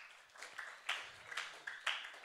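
A brief burst of light applause: a handful of people clapping unevenly, with a few sharper claps standing out, fairly quiet and somewhat distant.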